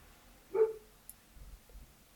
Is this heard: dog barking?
yes